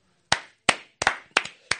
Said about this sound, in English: Just a round of applause, dude, for for the homies, for everybody doing their shit right now, dude, for real.